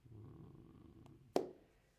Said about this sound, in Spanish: Se llama maullido, el sonido que hacen los gatos. Se escribe miau, miau.